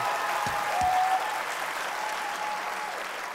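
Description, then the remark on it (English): A studio audience applauds loudly and steadily, a dense wash of clapping that fills the whole stretch, with a brief whistle cutting through near the start. “Real people make some noise!”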